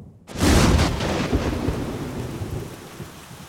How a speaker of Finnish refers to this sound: Oli synkkä ja myrskyinen yö. Ehkä.